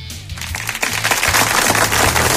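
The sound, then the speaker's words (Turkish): A crowd claps steadily in a dense, crackling wash that swells in after a brief quieter moment, with a low humming bass tone running underneath. “Çünkü bu kıymetli alkışlarınızla teşekkür ediyorum.”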